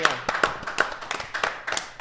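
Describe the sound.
Steady hand clapping in a church, applauding the Lord, with sharp, evenly spaced claps throughout, like a small group applauding together, with faint voices mixed underneath.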